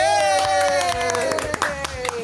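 Scattered hand claps of applause crackle throughout, fairly loud, under a long sustained tonal cry that slowly drops in pitch; the applause is for Miguelito the mouse, star of the Fanside program.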